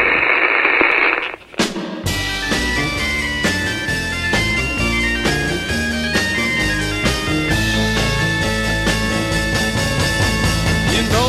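A radio being tuned: a second of crackly static and whistling tones, a quick sweeping whoosh, then a station locks in and loud, full music plays steadily to the end.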